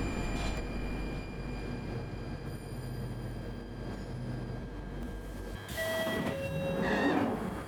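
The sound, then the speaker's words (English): A London Underground train at Crouch End station, terminating at Alexandra Palace, rumbles steadily along the rails with a constant low roar and faint whining tones, then swells into a louder rush with brief metallic squeals near the end. “This station is Crouch End. This train terminates at Alexandra Palace.”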